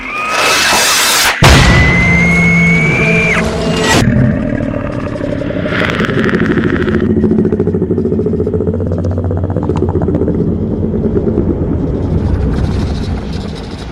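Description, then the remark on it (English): A single loud metallic crash in the darkness, like something large slamming into a nearby metal fence, with a sharp ringing tone before it and a low rattling rumble that carries on afterward. No voices. “In actuality, it sounds more simply like something large has hit itself against the nearby fence.”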